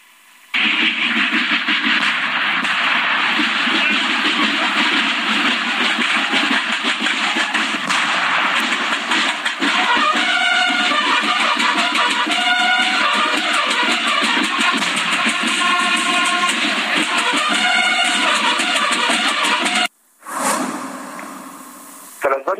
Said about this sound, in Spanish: Después comenzaron a lanzar algunos petardos y a un grupo de policías militares que contuvo esta agresión con escudos formados en una barrera. Vamos a escuchar parte de cómo fueron estos incidentes esta tarde.